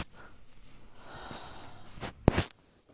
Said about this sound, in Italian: il cane che fa un casino